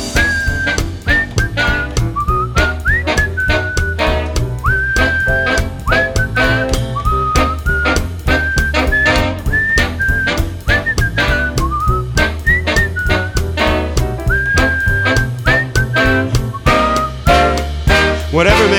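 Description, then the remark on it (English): A whistled melody carries the tune with bright sustained notes and little upward slides, played over a steady full band backing of drums and bass, loud throughout. “Whistle solo.”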